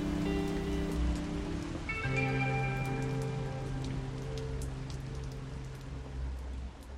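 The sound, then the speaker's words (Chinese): Steady rain pours down in a dense hiss, with scattered sharper drops tapping through it. A low, sustained tonal hum runs underneath the whole time, shifting pitch slightly partway through. No one speaks. “我记得回贵州的那天是一个下雨天”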